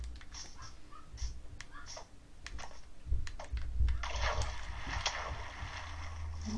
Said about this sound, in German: Und ich schwimme gerade durch den Fluss auf so einen Berg zu.